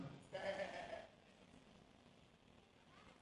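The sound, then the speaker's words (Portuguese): A voice imitates the bleat of a lost sheep alone in a pasture: one short, nasal, wavering call lasting under a second, clear, followed by quiet background noise. “E a ovelha está no pasto perdida, sozinha e berrando.”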